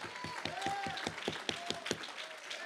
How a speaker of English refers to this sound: Oh, somebody clap your hands if there's a fight in your spirit.